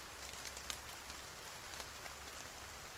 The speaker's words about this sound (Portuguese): E tá chovendo.